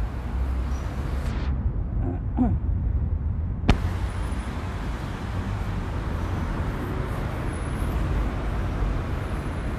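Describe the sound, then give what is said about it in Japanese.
Busy roadside ambience at the bus terminal of Didube station, with the steady rumble of idling buses and passing traffic, a sharp hiss of an air brake partway through, and no voices standing out. “バスターミナルのあるDidube駅から”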